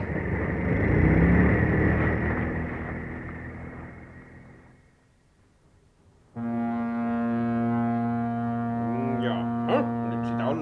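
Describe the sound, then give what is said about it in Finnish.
A broad rumbling wash fades away to near silence, then a motorboat engine is started for departure on a trip to Kalamarissuari and keeps running with a loud, steady, humming drone and a few brief whining rises. “mie käynnistäkin moottorin lähetään kohta.”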